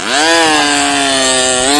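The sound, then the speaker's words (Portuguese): An electric sander runs steadily, its loud, buzzing motor whine holding a constant pitch that rises slightly near the end, with no voices. “contou o seguinte: o amigo dele, o Mike, ele pegou uma lixadeira.”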